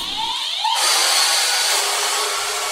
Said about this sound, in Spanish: Amor, ¿ya limpiamos el piso esta semana? No, ¿querés probar la aspiradora nueva? Dale. Te digo que esto de comprarse una aspiradora robot es lo mejor que podríamos haber hecho.